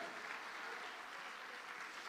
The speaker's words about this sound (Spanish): Dele palmas fuerte al Rey de la Gloria. Amén.